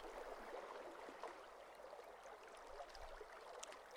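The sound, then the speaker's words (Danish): A small stream of very calm water in a forest flows gently and steadily, a soft continuous trickle and babble of water with no voices, quiet throughout. “Ved siden af Geo er der et lille vandløb med helt roligt vand.”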